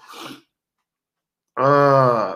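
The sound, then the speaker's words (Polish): A short, breathy intake is followed by a pause, then a loud, voiced sneeze that rings out with a throaty, drawn-out tone. “Przepraszam, kichnąć mi się zachciało.”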